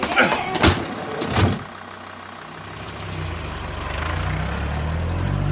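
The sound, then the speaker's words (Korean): The door of a 10-seat passenger van slams twice with sharp, heavy thuds as passengers board in front of a subway station, then the engine turns over and settles into a low, steady rumble that slowly grows louder as it departs. “매일 오전 11시 집 근처 지하철역 앞에서 10인승 승합차에 올라탔다.”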